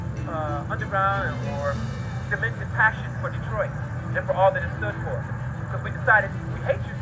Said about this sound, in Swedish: Det finns inte så mycket annat än bilar.